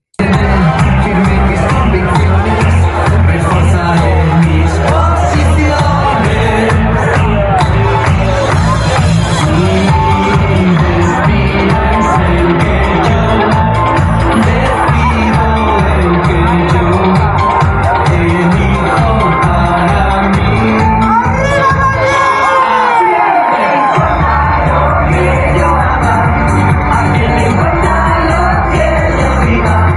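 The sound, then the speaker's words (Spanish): A loud, dense crowd cheers, yells and whoops continuously over thumping festive music at a gay pride march where people dance the conga, with a brief dip in the bass near the end. “Creo que eso era 2015 bailando la conga en una marcha del orgullo gay o alguna de estas eh, fiestuquis que hacen”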